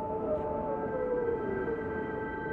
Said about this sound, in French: En contemplant ce glacier, je ne vois qu'une immensité paisible. Il y a juste le son du vent.